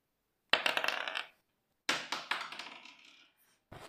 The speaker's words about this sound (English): In fact, I was able to track down the uh, percent liar table, and um, I thought I might might give it a go here. So I'm just gonna give the dice a roll.